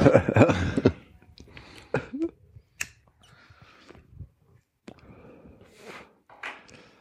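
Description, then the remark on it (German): A harsh cough bursts out at the start, followed by a quieter throat sound and scattered soft clicks and rustles against an otherwise hushed background. “Ich huste.”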